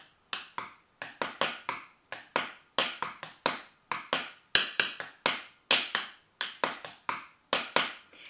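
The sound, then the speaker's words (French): Pencils are tapped gently on the floor to make music, in quick, uneven bursts: dozens of crisp clicks with brief pauses between clusters, and no voices. “peux taper aussi sur le sol ou sur ton support.”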